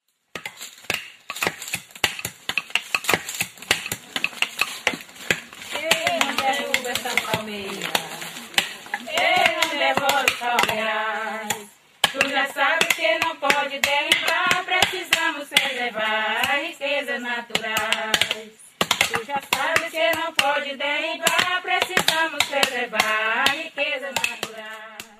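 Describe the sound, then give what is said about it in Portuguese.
Women coconut breakers in Maranhão sing a work song in unison while sharp, rhythmic cracking and chopping blows split hard babaçu coconut shells throughout, a steady percussive knocking beneath the voices. “Este é um canto de trabalho das mulheres quebradeiras de coco babaçu, no Maranhão.”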